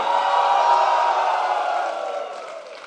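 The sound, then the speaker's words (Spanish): A crowd at a church service shouts a victory cry together in a sustained, loud collective roar of cheering and whooping voices, filling the space before gradually fading over a few seconds. “Vamos a darle un grito de victoria.”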